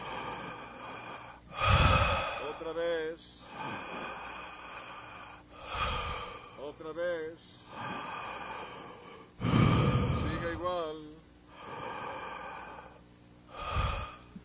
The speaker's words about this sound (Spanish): Siga respirando y jale el aire. Fuerte y larga.